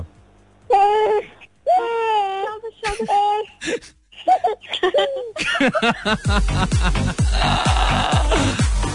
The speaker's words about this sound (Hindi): यार ये कैसे हम मतलब बच्चों को रुला के हम खुश हो रहे हैं it's it's fun fun fun बच्चों को वैसे नहीं रुलाना चाहिए